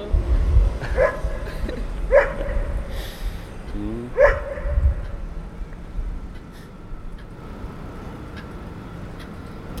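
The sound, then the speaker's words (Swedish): A dog barks a few times in the background, spaced-out single woofs over low rumbling ambience, with a brief murmur from a person, at a swing at Röda Torv in Örebro, Sweden. “Nu är det någon hund här i bakgrunden.”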